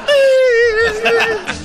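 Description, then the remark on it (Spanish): A voice imitates a child crying, a single drawn-out wavering wail held at a high pitch for over a second, then breaking into short sobbing catches at the end. “y el niño está llorando.”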